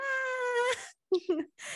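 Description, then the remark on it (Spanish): A voice mimics a baby wailing on an airplane at takeoff, with a sustained, high, quavering cry, followed by a couple of short whimpering bursts and the start of another cry, fairly loud. “Generalmente ese es el motivo por el cual los bebés empiezan a llorar y pues claro, qué incomodidad.”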